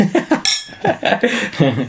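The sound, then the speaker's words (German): Glasses clink together once in a quick, bright toast, the ring cutting through chatter and chuckling voices that carry on around it. “Ja, komm, Prost.”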